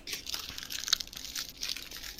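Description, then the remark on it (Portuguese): Someone eating a chocolate truffle: soft, irregular crinkling and crunchy mouth sounds in quick bursts, with one sharper click near the middle. Fairly faint, and no one speaks. “A minha janta é uma trufa.”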